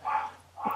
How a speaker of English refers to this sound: I'm sorry if you hear my dogs barking in the background.